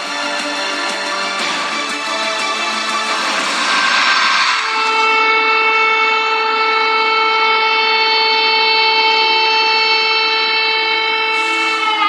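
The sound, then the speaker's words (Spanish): A loud evacuation siren in the city of Donetsk, Ukraine, sounding after a vehicle exploded near a government building, blares in a long, steady tone that holds its pitch for several seconds, preceded by a few seconds of harsh, noisy rumbling. “Esto que estamos escuchando, bueno, fue la sirena de evacuación debido a una explosión en la ciudad de Donetsk, en Ucrania, y el estallido fue de un vehículo que estaba cerca de un edificio de gobierno y pertenecía al jefe de la milicia.”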